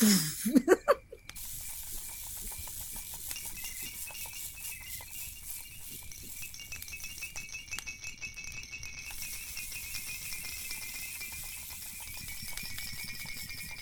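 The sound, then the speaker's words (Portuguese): A campfire crackles steadily, a continuous hiss dotted with quick snapping pops, opening with a few louder bursts before settling into an even, busy crackle with no voices. “A fogueira agora aqui fez até um boom, né?”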